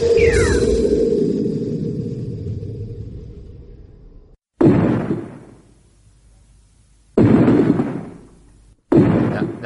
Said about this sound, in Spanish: Ya, vale, hombre, con la obra ahí, con el martillo.